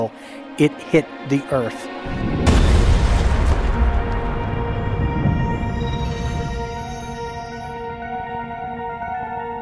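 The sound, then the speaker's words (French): A plane hits the ground at 1000 km/h at a 40-degree angle in a meadow in Shanksville, Pennsylvania, with a sudden, loud explosion, its deep boom rolling into a long rumble that slowly fades, preceded by a few short sounds and backed by a steady tonal drone. “Et à 1000 km heure et avec un angle de 40 degrés, l'avion a frappé le sol.”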